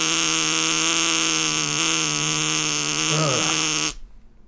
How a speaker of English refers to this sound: broadcast the brown note to everybody listening right now and see what happens.